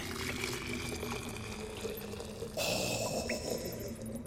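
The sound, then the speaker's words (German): Liquid being poured and stirred in a copper cup, mixing two liquids with cold water: a steady watery splash and trickle that grows fuller and brighter halfway through, continuous with no talking. “Yes, und nun vermische ich beides in diesem Kupferbecher mit kaltem Wasser.”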